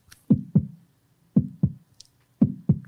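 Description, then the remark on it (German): Three pairs of dull knocks in a steady lub-dub rhythm, like a heartbeat tapped out on a surface, with short silences between each double beat and no voices. “und noch vor dem vierten Herzschlag sagt mein Vater”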